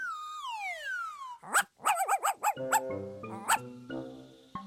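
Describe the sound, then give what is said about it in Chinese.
A pet dog gives a falling, high-pitched whine, then lets out a quick run of sharp, yappy barks, about six or seven in irregular rhythm, over soft steady background music. “肚子饿的狮子看到一只宠物狗，忍不住张开大口。”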